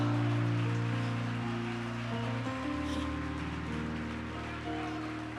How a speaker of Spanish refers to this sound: Dale un aplauso al Señor con tanta fuerza.